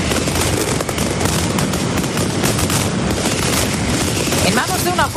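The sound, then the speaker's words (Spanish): A dense, relentless barrage of firecracker bangs from a mascletà, the Valencian firecracker display, crackles continuously like rapid gunfire, loud, with faint whistling pops rising near the end. “se dispare en el Puente del Rey la primera mascleta en Madrid capital”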